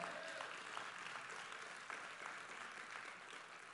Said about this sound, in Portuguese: Dá um glória a Deus aí, aplauda ao Senhor.